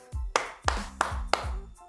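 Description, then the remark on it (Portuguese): Four crisp hand claps in a steady, even rhythm, each a sharp smack with a brief ring after it, with a low murmur of background sound between them, made at home as a children's activity exploring sounds made with the body. “Então agora, uh, por exemplo, se lá com a prof do vídeo eu aprendi a produzir o som, uh, eu vi que batendo palmas”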